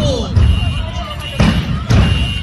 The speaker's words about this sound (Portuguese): Explosão agora aqui, explodiu tudo. Explosão medonha.